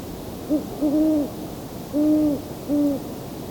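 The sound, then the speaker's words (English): A series of soft, tonal owl hoots from a male and a female with slightly different tones, some short and some drawn out, repeats in an uneven rhythm over a faint background hiss, with no voices present. “Some of the best hooting was during that chorus, coyotes, but I had to be facing the wrong way with the microphone.”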